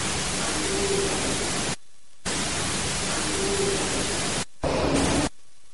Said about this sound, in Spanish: Vamos a escuchar esta inclusión psicofónica. Eh, ayúdame. Vamos a escucharla.